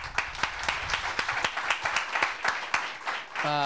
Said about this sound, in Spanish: Bien, perfecto. Un aplauso a...